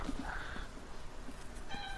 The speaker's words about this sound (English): Shut up, cat. Yeah. Shut up. you, are right next to the microphone.